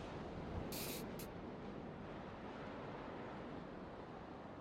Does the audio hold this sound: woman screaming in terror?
no